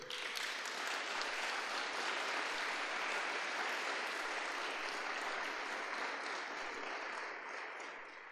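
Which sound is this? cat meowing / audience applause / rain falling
audience applause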